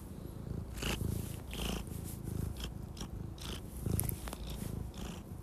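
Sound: cat purring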